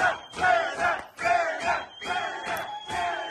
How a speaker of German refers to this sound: Ach, der Balsam. Wow. Wow, Balsam für eine Seele. Wenn ein ganzes Wiesenzelt schreit.